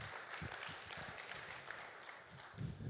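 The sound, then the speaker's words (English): A crowd applauds steadily, many hands clapping together in a dense, continuous patter at moderate loudness, with a few sharper claps standing out near the end. “Let's applaud the Lord for these awesome brothers.”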